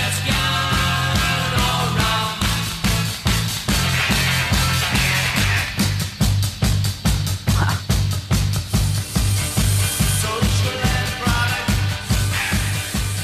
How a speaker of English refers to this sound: I love those little guitar farts.